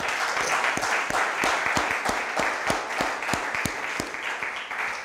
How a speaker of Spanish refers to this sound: Dele pues un aplauso, Señor, por favor.